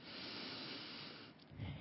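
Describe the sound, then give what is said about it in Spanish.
During a meditation, a long, deep breath is drawn in with a steady airy hiss, then released in a softer, lower exhale. It's fairly loud, with no talking. “Tomas una profunda respiración”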